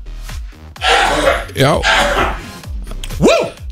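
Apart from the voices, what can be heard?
sneeze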